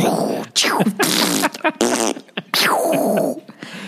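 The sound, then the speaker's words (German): A voice makes a rapid string of mouth sound effects: falling whistles like dropping bombs, blasting explosion noises and wet, raspy fart-like sputters, each burst loud and tumbling into the next. “Und das Erste, was mir eingefallen ist, ist, dass meine Kinder nonstop Bomben, Kriegs- und Furzgeräusche mit dem Mund machen.”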